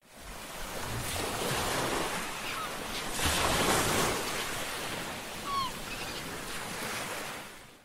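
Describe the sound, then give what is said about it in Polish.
Steady roar of sea surf washing onto a shore, with broad swells rising and easing over several seconds, with no voices. “A ponieważ od dwóch miesięcy siedzicie zamknięci w domach, a na wakacje na pewno nie będziecie mieli szans wyjechać jeszcze przez jakiś czas, to dla przypomnienia, jak brzmią fale bijące o morski brzeg.”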